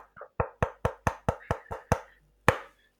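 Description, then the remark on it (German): Sharp knocking on wood: a quick, steady run of about nine raps, then a brief pause and one last firm knock. No voices. “Dafür klopfe ich auf Holz.”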